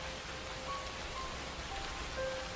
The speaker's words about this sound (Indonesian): Cuaca yang terik tiba-tiba berganti mendung dan perlahan rintik hujan pun turun membasahi pekarangan dekat gedung A yang ada pohon besar di samping gedung itu.